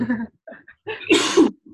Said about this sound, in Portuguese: Mas corona não, é pigarro.